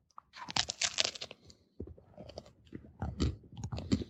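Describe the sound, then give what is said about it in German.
Loud crunching of crisp, hard, burnt bread being bitten and chewed, with a rapid burst of crackly bites, a brief pause, then more uneven crunchy chewing. “Das hört sich an wie meine Aufbackbrötchen.”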